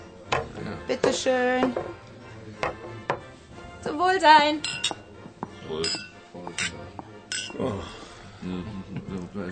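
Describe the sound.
Someone brings glasses and sets them down on a table in a pub with several sharp knocks, followed by a bright clinking toast, all amid the murmur of people talking.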